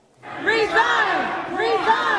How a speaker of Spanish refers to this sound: Con los gritos de una muchedumbre exigiendo su renuncia, los concejales hispanos Gil Cedillo y Kevin de León fueron presionados a salir de la primera audiencia del Concilio de Los Ángeles